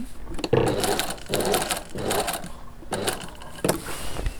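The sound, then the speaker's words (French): A sewing machine runs slowly in short, uneven bursts while mending a stair-step tear in a stage curtain, its motor whirring and needle tapping, with brief pauses between stitches. “Bon là, je vais doucement parce que c'est une espèce de déchirure en escalier là.”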